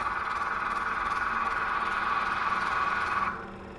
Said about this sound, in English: The flickering light combined with the sound of the projector put me in a state of I'm not going to say hypnosis